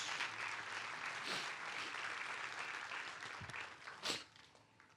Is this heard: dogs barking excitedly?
no